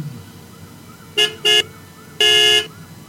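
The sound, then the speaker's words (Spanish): A car horn is honked three times in rhythm by a person: two short beeps in quick succession, then a longer blast, with faint background rumble and no talking. “En realidad yo estoy tocando el claxon imaginando otra cosa del grito.”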